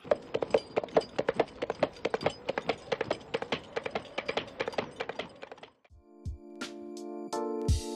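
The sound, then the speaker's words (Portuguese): Coconut shells knocked on gravel in a quick, steady galloping rhythm, crisp, imitating a horse's hooves for about six seconds before giving way to sustained tonal music. “ou que o som de cascas de coco sendo batidas em cascalho com um certo ritmo seja exatamente o som de um cavalo galopando?”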